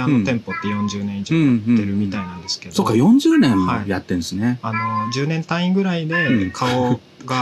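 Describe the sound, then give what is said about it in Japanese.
A speaker's own pet cat meows a few times, drawn-out rising and falling cries mixing in and out with two people chatting at a steady conversational level. “めっちゃ猫鳴いてる。”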